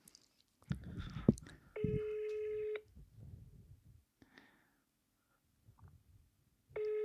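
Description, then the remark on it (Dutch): A phone ringback tone plays over a speakerphone, two long steady buzzing rings separated by a pause, with faint handling noises and murmurs in between. “Zet ik hem even op de speaker.”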